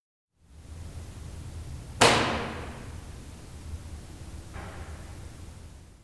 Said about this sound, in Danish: Altså de lyde, mm. der hvor skabet bliver smækket, ja. man kan høre, det bliver hamret i.